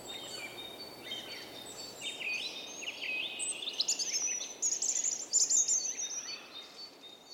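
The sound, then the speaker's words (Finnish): A European robin sings a run of thin, high warbling phrases that rise and fall, over a steady hiss of outdoor background noise with no one talking. “Lintuharrastajien slangissa punarinta on saanut lempinimen köyhä.”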